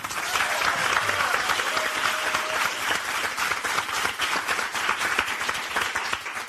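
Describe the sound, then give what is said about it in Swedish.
Sustained applause from an audience welcoming radio presenter Linnea Wikblad as the fourth panelist of a panel discussion, a dense, steady wash of many hands clapping at once, fairly loud and even throughout with no voices standing out. “Gott folk, ge en varm applåd till Linnea Wikblad.”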